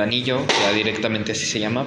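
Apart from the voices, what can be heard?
chair noise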